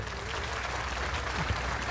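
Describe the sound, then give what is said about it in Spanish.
Steady, rapid hand clapping fills two seconds as a dense, even patter at a fairly constant loudness, with no voices over it. “¿Por qué aplaudo bueno, porque la estandarización llegó al iPhone, ya estaba en el iPad, faltaba que llegara al iPhone.”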